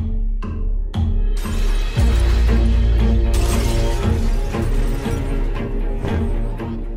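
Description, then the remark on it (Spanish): Glass shatters and breaks during Kristallnacht, the Night of Broken Glass, as synagogues and Jewish shops are destroyed, in several sharp, loud crashes, the first few spaced apart and then merging into a dense burst of debris over a deep, continuous rumble. No one speaks. “En la Crystal o Noche de los Cristales Rotos, asistimos a la quema de sinagogas, la destrucción de comercios judíos, el asalto de casas de judíos, así como a palizas y asesinatos de judíos.”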